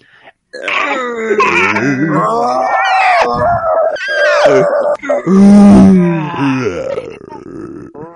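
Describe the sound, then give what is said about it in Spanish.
A human voice imitates a giant movie monster's roar, with loud, strained growls, groans and wavering howls running continuously for several seconds, with no other sounds. “en su sección sorpresa del día de hoy, ruidos de Godzilla”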